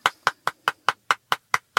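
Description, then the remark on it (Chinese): Nine quick, even hand claps in a steady rhythm, each a sharp, bright slap, heard alone with no talking. “太牛逼了，这个要鼓掌了啊！”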